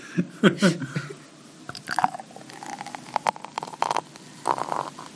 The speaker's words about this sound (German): Klingt schon schön, aber schäumt sehr. Aber sehr sehr verhalten, also sehr. Ja, das, also ist, das mein, ist ein Ninja-Bier, weil das so, so stealth-mäßig da hineingeflossen ist. Das ist sehr smooth.